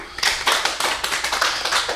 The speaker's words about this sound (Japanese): これを拍手するために、えっとねあのー皆さんが、ね、手を、ね、この痛めるのよそしてねあのね今打ってるパソコンを止めなきゃいけなくなるのよ ダメなのよ